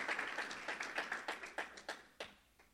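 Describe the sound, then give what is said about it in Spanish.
A church audience applauds the word of the Lord during a sermon, a dense patter of many hands clapping that gradually thins into a few scattered, sharper claps before fading out; no one speaks. “Dele un fuerte aplauso a la palabra del Señor, que es fiel y verdadera.”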